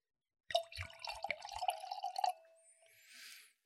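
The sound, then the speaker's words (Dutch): White Alsace wine is poured from a tall, narrow bottle into a glass, a bright gurgling stream with a few clinks for about two seconds, then a soft fizzy trickle fading out. No one speaks. “Ik zal even een glas voor je inschenken.”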